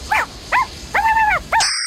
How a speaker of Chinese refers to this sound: 这边是狗。